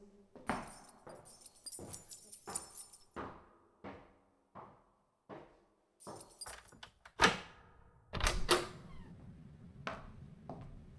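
A bunch of keys jangles in bright metallic bursts while someone fumbles at a lock, with scraping and clicking in between and a few heavier clunks of the latch and door near the end.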